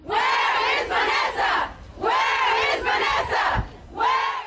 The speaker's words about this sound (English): And then this last night in Killeen, a rally held with hundreds of people chanting her name, wearing shirts with her face on it.